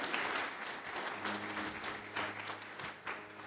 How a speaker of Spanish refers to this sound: ¿Usted lo cree? Si usted lo cree, aplauda al Señor, porque el Señor va a hacer esos milagros tan grandes que tiene para tu vida.